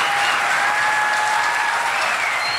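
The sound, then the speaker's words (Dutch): Dense, steady applause fills the whole stretch, a wash of many hands clapping at an even loudness, with a couple of faint thin tonal whistles drifting through the noise. “Nou, applaus voor zo'n knappe ajournalistieke framing van NRC.”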